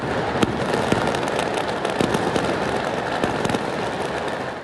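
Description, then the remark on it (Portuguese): A dense, continuous barrage of fireworks bursting for over 10 minutes in São Paulo, Brazil, at a party celebrating a workers' union board election, with sharp cracks and pops layered over a rumbling wash of explosions, steady and loud throughout with no voices. “Mas o pior foi esta queima de fogos de artifício que durou mais de 10 minutos e tirou o sossego de muitos moradores.”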